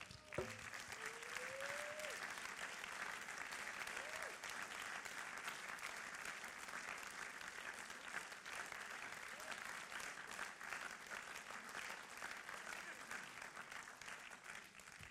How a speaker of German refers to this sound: Jetzt geben wir Gott wieder Applaus bis das letzte T-Shirt anhaben.